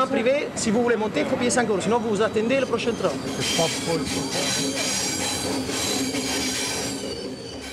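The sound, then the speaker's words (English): A train rolls steadily along the rails on the short journey along the Mediterranean coast to Marseille, its rumble joined midway by a loud, sustained metallic squeal of wheels; indistinct voices are audible near the start. “next morning, they packed up and took the short train journey along the Mediterranean coast to Marseille.”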